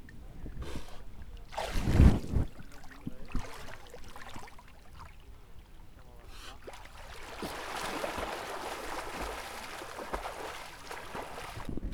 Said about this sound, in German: Ich stehe jetzt hier knöcheltief im Wasser und auch ich wage jetzt den Sprung in selbiges.